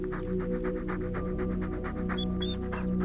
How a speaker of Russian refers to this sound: Внимательно глядя прямо в глаза мужчины, собака часто дышала, открыв пасть, и периодически слизывала со своей морды